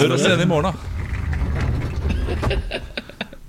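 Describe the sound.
A rolling chair creaks and rattles, a run of mechanical squeaks and clicks that follows a short spoken line and continues on its own.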